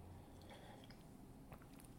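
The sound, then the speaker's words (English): A quiet sip of coffee with soft wet mouth noises and a faint swallow, no talking, over a low steady hum. “I'm taking a sip of coffee.”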